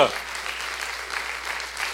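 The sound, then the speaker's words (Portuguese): An audience claps steadily for the Lord, a dense, sustained wash of many hands applauding together, even in volume with no single clap standing out. “Aplaude o Senhor primeiro.”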